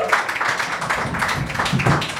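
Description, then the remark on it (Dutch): Steady audience applause at a live evening show as the host is welcomed on stage, a dense wash of many hands clapping at an even, fairly loud level throughout, with no voices on top. “Je moet blijven applaudisseren, ik vind dat wel leuk, ja.”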